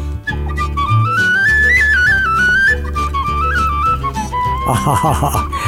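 A bright tin whistle plays a lively melody over a steady bouncing accompaniment of bass and rhythm, loud, ending with a busier flourish.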